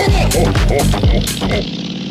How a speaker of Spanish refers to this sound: con esa entrada de sonido de Harley de fondo